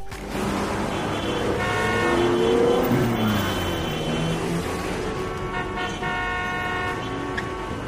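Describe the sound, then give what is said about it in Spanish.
Dense city traffic with engines rumbling and passing, and repeated car horns honking in short and sustained blasts throughout, a constant loud urban din with no voices. “Dibujé una persona usando un aerosol y una ciudad con muchos autos.”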